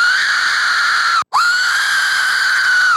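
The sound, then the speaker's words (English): Two loud, shrill screaming blasts from a death whistle being blown and modulated, a human-like shriek with a rough edge, separated by a brief gap; the second blast is longer and ends with a falling pitch. “he had the death whistle”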